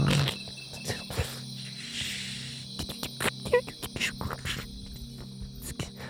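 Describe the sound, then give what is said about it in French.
A voice mimics small forest insects chirping with a steady high trill and a scatter of quick clicks and ticks, fairly quiet, with no words spoken. “Puis là, t'entends comme la forêt genre des petits, des petits insectes.”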